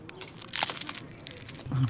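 A crackly crunch as a piece of toasted German ryegrass bread is broken off to dip into carrot greens, one brief dry burst of crackling followed by fainter rustles and a low murmur at the end.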